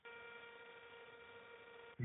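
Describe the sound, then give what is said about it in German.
A voice makes a steady, nasal buzzing bass drone like a small electric razor, sounding thin over a telephone line, holding for about two seconds before a brief louder burst. “Der kleine Elektrorasierer-Bass.”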